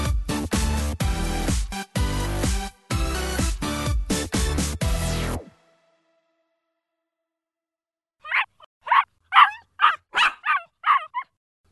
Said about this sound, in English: Well, the puppy I talked about several episodes ago has finally arrived. You may even hear him. I've been a uh, stick in the mud about getting a dog, but now that he's here, I think I might grow fond of the little feller. That is, if he stops howling